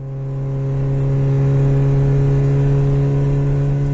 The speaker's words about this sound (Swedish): Bilresan tog lång tid. Så lång tid att grabben aldrig trodde att en slutdestination skulle nås. Bilen svängde av den smala grusvägen som ledde till en gård mitt ute i Värmlands mörka skogar.